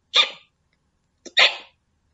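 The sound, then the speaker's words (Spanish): Two sharp, breathy hiccup sounds about a second apart, fairly loud, apparently a voice imitating hiccups, with silence between them and no talking. “No me puedo comer una ovejita que tiene hipo.”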